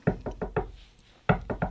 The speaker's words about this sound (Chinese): 哎呦，这次是谁来敲门？